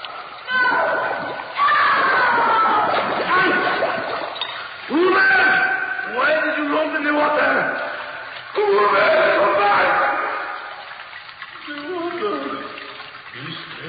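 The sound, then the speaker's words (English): Loud water splashing and sloshing comes in repeated churning bursts as a man's head is held under water, with agitated voices and cries tangled into the commotion throughout. “Hold his head under water.”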